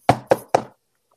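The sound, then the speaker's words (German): Three firm knocks on a person's door in quick, even succession, fairly loud, followed by silence, as someone knocks again to see if he is there. “Klopft nochmal.”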